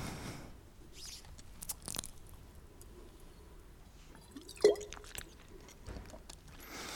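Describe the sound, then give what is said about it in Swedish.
Someone drinks water up close, with soft sips, wet mouth clicks and swallowing, then a sharp tap like a glass being set down. No one speaks. “Jag ska bara dricka vatten.”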